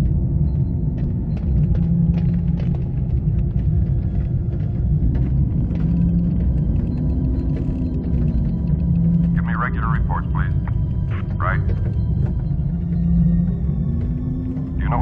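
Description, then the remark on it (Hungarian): A deep, steady droning hum from the English-language version of a film soundtrack fills the whole scene, with slow rising and falling swells in its pitch, while faint, muffled voices come through briefly in the background. “Tehát a magyar hangsávra ez nem került rá, de az eredeti nyelvű, az angol verzióban viszont ott van a búgás, tehát amit most fogtok hallani, az nem magyarul lesz, hanem angolul, de ennek ez az oka.”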